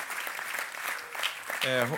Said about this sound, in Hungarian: De még nem tapsoltuk meg az internet előtt ülőket, egy nagy tapsra tapsoljuk meg őket is.